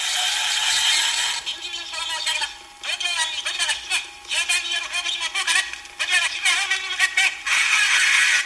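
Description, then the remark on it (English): A pull-string Godzilla doll plays a scratchy, tinny recorded voice that chatters unintelligibly over its whirring, ratcheting mechanism, loud, for several seconds, as the spoken intro to a song. “It's somebody pulling the uh, the pull string on a Godzilla doll, and it sounds like this.”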